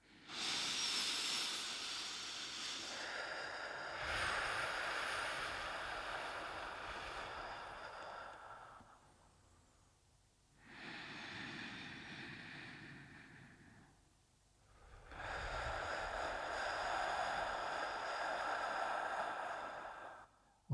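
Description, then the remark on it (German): Slow, loud breathing in an ocean-breath relaxation exercise imitating waves: a long airy inhale through the nose, then a rushing exhale out the mouth, repeated in unhurried cycles with brief quiet gaps between breaths. “Atme laut durch die Nase ein und durch den Mund dann aus.”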